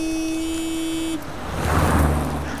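A car horn blares in one long, steady blast as a car drives past in the darkness, then cuts off as the vehicle's engine and tire noise swell and rush past.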